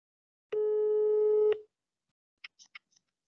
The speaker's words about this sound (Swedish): Ska, vågar du ringa husse? Ja, det är klart. Jag slår en signal.